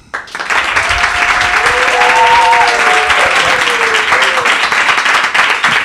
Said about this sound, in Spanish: Por tanto, es la primera vez que en un programa vais a recibir un aplauso